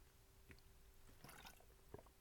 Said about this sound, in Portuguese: Pausinha para a água, desculpem lá.